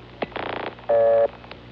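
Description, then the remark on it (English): Telephone line sounds from a call attempt on the local phone system in Fairbanks, Alaska: a click, a short buzzy burst, then a loud steady tone lasting about a third of a second and a final click, thin and band-limited, with no voices. “Used to be in Fairbanks, you could make a telephone call right away”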